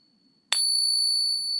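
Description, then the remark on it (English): A genuine silver Morgan dollar coin is struck once and rings out with a clear, high-pitched metallic tone that sustains steadily to the end, fairly loud with no voices. “Um, and we'll go ahead and we'll put the real one in here so you can hear a real one. Sounds beautiful.”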